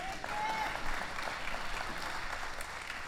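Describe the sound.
A room full of people applauds steadily for about three seconds, a dense, even wash of many hands clapping at once, with faint voices mixed in underneath.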